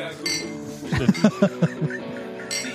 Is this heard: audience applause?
no